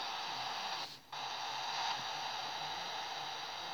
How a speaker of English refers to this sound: So when like today we've had problems, and when you talk to other people on shows, you get like interference of some kind.